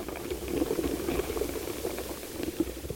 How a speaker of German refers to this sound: Regenwürmer und Insekten sind in dieser Welt die Riesen. Und so klingt es, wenn sie sich durch den Boden arbeiten.